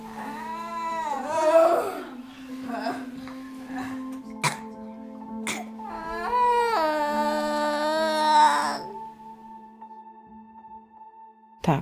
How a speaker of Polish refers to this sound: wytrzymuję jego krzyki i nie przeszkadza mi to, że krzyczy, że buntuje się, że mu nogę za wysoko podnoszę, że za mocno odwodzę, a jemu to się nie podoba, że mu masuję stopy, że paluszki odginam